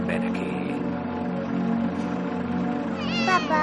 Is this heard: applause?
no